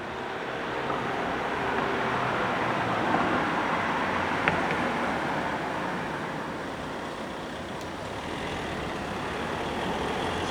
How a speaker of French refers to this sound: Circulation. Itération. Klaxon. Bus. Crécelle organique. Moteur. Ralentissement. Frottement. Passage. Passage. Passage.